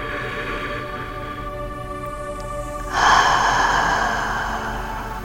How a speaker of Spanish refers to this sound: Haz una respiración profunda y vocal.